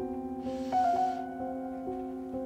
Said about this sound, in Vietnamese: Cô và các em cùng nhau hít một hơi thở thật sâu